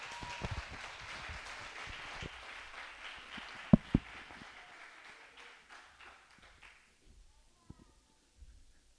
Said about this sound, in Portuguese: Aplauda o Senhor Deus em nome de Jesus.